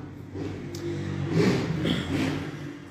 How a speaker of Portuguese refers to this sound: Então, deixa a moto passar.